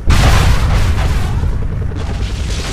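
A Hellfire missile strike explosion bursts in sharply and loudly, then rolls on as a heavy, booming rumble that fills the next few seconds without fading. No voices are heard.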